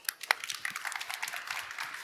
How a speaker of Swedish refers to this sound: En applåd!